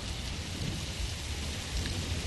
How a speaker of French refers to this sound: Là, vous la connaissez toutes. Celle-là, ça commence par un orage